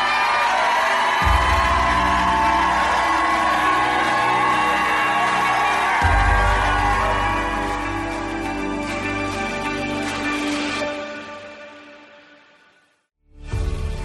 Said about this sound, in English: Jump up to your feet and shout like you never shouted in your life.